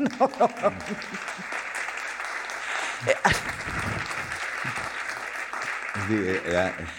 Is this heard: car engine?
no